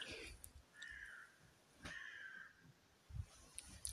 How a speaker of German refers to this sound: Ja, herzlich willkommen, Raben. Ihr wart jetzt auch in dieser wundervollen Podcast-Folge.